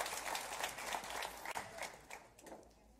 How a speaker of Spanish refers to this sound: ¿Hay alguien aquí generación alfa? Varios. Muy bien. Un aplauso para la generación alfa. Muy bien. Venir a la iglesia.